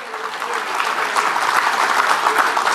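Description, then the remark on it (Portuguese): Steady applause from an audience at an event at Fiesp in December 2021, many hands clapping in a dense, even wash that holds at a constant loudness throughout, with no voices standing out. “Sim, isso aí foi um evento na Fiesp em dezembro de 2021 e todo mundo aplaudiu e achou graça.”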